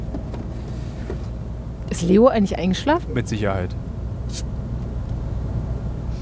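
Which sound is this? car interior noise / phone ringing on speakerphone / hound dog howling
car interior noise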